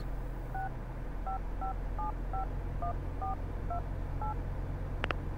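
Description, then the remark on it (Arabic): About nine short dual-tone beeps from a phone keypad as a mobile number is dialed at an uneven, steady pace, clear over a low background hum, ending with a brief click. “حاولت اتصل عليه بس جواله كان مغلق طيب بجرب اتصل عليه انا الان يمكن كان مشغول مع ابوك”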